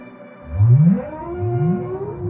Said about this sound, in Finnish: mitä jos valaille voitaisiin tulevaisuudessa laulaa tai naksautella takaisin?